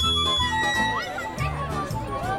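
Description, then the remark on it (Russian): A lively, festive carnival crowd: overlapping children's voices and chatter mixed with bright, tinkling musical tones, steady and fairly loud throughout, like a busy fairground. “Кажется, я слышу шум карнавала Сейчас будут танцы, веселье”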